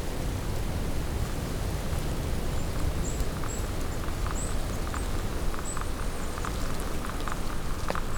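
A light, steady rustling of forest near the Col des Marousses, at nearly 900 metres altitude, fills the whole clip, a soft even hiss with scattered faint ticks and a few thin, high chirps partway through. No one speaks.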